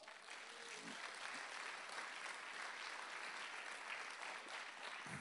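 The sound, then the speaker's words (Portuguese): An audience claps steadily for the Lord throughout, a dense, even wash of many hands applauding at a constant loud level with no clear breaks, faint voices mixed into the noise. “Cada vez que você aplaude, eu tomo um gole.”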